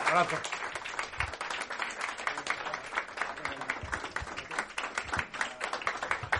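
Enthusiastic applause from a group, a dense, steady patter of many hands clapping that keeps going for several seconds without a break, with possible voices mixed in underneath.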